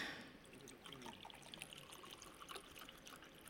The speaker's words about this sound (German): in einem ganz festlichen Ritual hat der hohe Priester aus einer ganz zentralen, wichtigen Quelle von Jerusalem einen Krug Wasser genommen und hat ihn über den Altar geleert. Das mache ich jetzt nicht hier, sondern ins Glas.